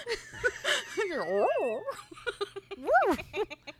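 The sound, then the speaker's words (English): A person imitates a wolf barking, with a few loud, swooping yelps that rise and fall in pitch, spread unevenly over a few seconds. “He's like wow wow wow wow. He's barking. Woof, woof.”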